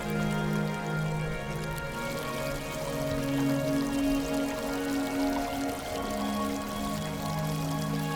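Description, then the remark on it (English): Ocean waves wash in a steady, continuous hiss of surf, even in loudness, blended with a soft sustained musical drone and no talking. “And just taking a moment to listen to those waves and any other sounds you might hear, perhaps birds, the breeze, waves.”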